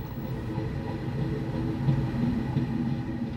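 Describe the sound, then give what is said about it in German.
A train rolls steadily along the tracks, a continuous low rumble with faint rhythmic rattling of the cars, moderately loud with no voices. “Fracht hat Vorrang vor dem Luxuszug.”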